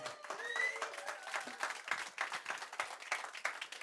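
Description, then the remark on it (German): An audience claps in a loose, scattered burst of many hands, dense irregular slaps that stay moderately loud throughout, with a faint tonal whistle or murmur mixed in early on. “Das Klatschen war ein bisschen peinlich, aber ich nehme es, ja? Ich nehme alles Klatschen, ja?”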